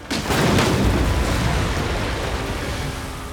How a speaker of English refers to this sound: In an instant, the bridge collapsed behind the twins. Shibalanke gasped as she watched it tumble into the putrid river below.